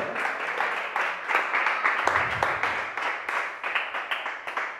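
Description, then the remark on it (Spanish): An audience applauding together as an applause to the One who lives, a dense, steady wash of many hands clapping at once, sustained throughout, with a faint murmur of voices underneath. “es un aplauso al que vive.”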